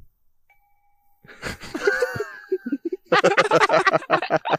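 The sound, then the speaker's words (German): A bright metallic ring of a struck handmade Tibetan singing bowl, its tones sustaining and slowly fading, while people laugh and chatter loudly over and after it. “er bringt nächstes Mal eine Klangschale mit”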